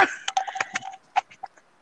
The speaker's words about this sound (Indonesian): aduh mau batuk bentar